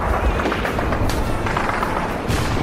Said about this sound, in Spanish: Nos vemos, si dejan de pegar tiros, claro.